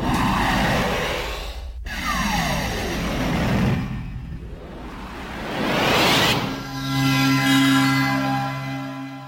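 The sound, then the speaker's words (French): A Neo Geo CDZ console sound: loud electronic whooshes and rising, falling synth sweeps, ending in a steady, sustained chord of tones. No one speaks. “Il s'agit de Neo Geo CDZ.”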